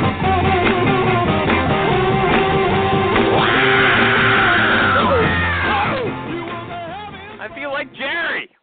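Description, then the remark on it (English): A man loudly shouts "Hey, everybody, recruiting!" over a dense, busy music bed, followed by a few shorter whooping yells near the end as the background thins out. “when that guy shouts, "Hey, everybody, recruiting!"”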